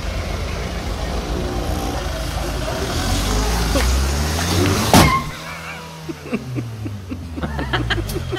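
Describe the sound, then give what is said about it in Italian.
A brand-new Kia Carnival minivan is started and driven for the first time after leaving the dealership: the engine rumbles and revs up with a rising whine, then a sudden sharp bang cuts through, followed by a lower idle and people laughing and chattering. “si mette al volante della sua Kia Carnival e fa filmare alla moglie un video della sua prima messa in moto”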